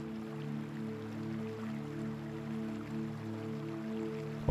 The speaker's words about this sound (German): höre einmal genau hin und lausche dem Geräusch des fließenden Wassers.